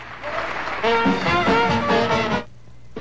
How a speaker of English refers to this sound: Just give me that cheer. That's what we need.